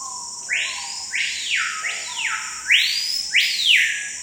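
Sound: screaming piha call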